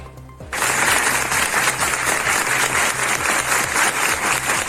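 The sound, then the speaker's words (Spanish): A brief hush gives way to sudden, sustained applause from a large crowd in San Fernando, Cádiz province, Spain, as a silence held in mourning for a local who died is broken; loud, dense clapping continues steadily to the end without any voices. “Este es el momento en el que se rompía el silencio en aplausos en San Fernando, localidad natal de uno de los fallecidos.”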